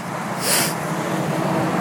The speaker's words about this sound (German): Und der Verkehr ist irgendwie doch recht gruselnd. Riesige, dicke LKW-Wagen mit, äh, mit, mit, äh, Dingen, mit Dingsies hinten drauf. Äh, weiß ich nicht, Holzkohle oder so, keine Ahnung.